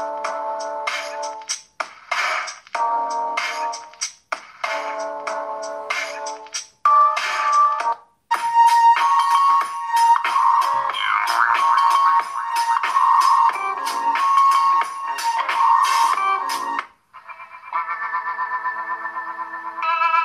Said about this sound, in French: Alors là, il est bien stéréo. Hein. La musique, elle sort là. Mais elle sort aussi de là.